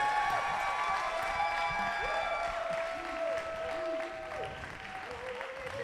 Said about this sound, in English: Let's give them a hand, y'all. Let's show them some love.